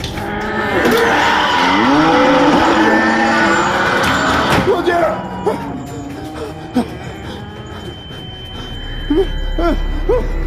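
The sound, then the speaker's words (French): Several cattle moo loudly from behind a door, their long, wavering calls overlapping in the first half, then fewer, shorter lows and snorts amid a noisy farmyard background with faint clatter. “Il y a des animaux derrière. Je suis peut-être dans un centre d'élevage.”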